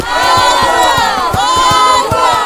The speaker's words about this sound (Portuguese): Assim que chegaram em mar, os israelitas viram as fontes de água. Eles estavam tão animados que saíram correndo em direção das fontes, gritando.